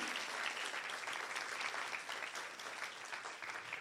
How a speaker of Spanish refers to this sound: Pero aún ese equipo, amén. Un aplauso para ellos.